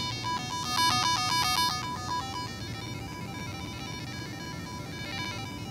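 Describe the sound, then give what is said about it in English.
Bleepy chiptune-style synth tones from a micro:bit-based device being moved around hop rapidly between pitches in a quick stepping pattern, loudest early on, then fade into softer warbling beeps over a steady low background hum. “As you move it, it makes kind of cool, bleepy, like chip tune synth tone effects.”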